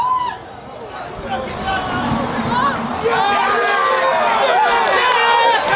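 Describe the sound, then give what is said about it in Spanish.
The Aston Martin Formula 1 pit crew cheers and shouts in celebration, many overlapping voices forming a steady, loud roar that swells and grows more excited partway through. “Escuchen la alegría del el pit de, Aston Martin.”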